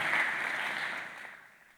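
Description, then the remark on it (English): Audience clapping in a dense, steady wash of applause that holds loud at first, then gradually thins and fades out. “Your clapping is shaking the house”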